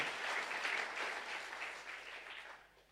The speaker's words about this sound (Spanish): que aplauden, aplauden al Señor